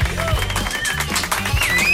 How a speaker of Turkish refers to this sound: alkışlıyor stüdyoda.